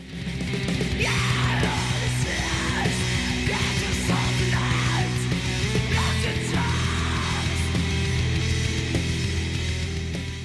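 A loud, dense heavy metal song with distorted guitars, pounding drums and harsh screamed vocals, played continuously at steady high volume without pause.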